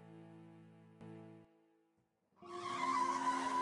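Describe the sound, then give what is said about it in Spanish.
A man arrives by car: the engine drones with a steady tonal hum, briefly drops away, then loud tires screech against the pavement in a harsh, noisy skid that lasts to the end. “Los adolescentes que regresaban tarde para trabajar lo vieron llegar con auto.”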